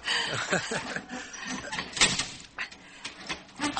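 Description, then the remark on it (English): A lift door slides with a grinding mechanical whir, stuttering and knocking several times as it catches and jams, the noise rising and falling in uneven bursts. “This door is always getting”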